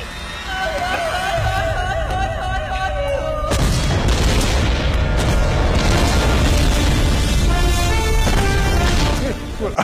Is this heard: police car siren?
no